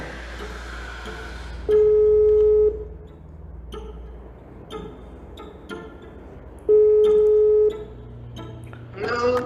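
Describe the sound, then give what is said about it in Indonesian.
A telephone call placed to a criminal law lecturer at Universitas Parahyangan rings out on the line: two long, steady ringback tones about five seconds apart, with faint clicks and bleeps in between and a brief burst as it connects. “melalui sambungan telepon”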